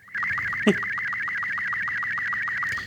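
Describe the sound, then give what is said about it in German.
A steady, high warbling electronic tone with rapid rhythmic pulses: an SSTV amateur radio image transmission of a picture of a cat, played continuously by an Android app from a phone speaker, with a brief thump near the start. “Das heißt, du kannst das nicht abbrechen, ein Katzenbild? Nein, diese Android-App kann man nicht abbrechen”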